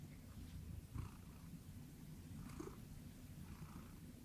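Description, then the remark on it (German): A cat purrs steadily in the background, a low continuous rumble with a gentle pulsing rhythm, fairly quiet, with no voices over it. “Oh, dein Büsi im Hintergrund sicher schnurren.”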